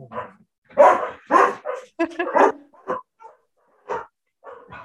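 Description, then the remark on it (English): Dogs bark in a rapid, irregular series of sharp yaps and woofs, with a few brief gaps between bursts and a faint whine near the end. “Yeah, they were about to bark.”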